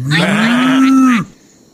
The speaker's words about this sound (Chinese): 我听见有好多动物的声音啊